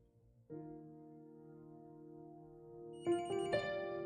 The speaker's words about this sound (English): Oh, we got another phone call.